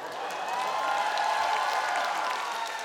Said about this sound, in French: Entre deux scènes, les applaudissements emplissent la salle d'un bruit sourd.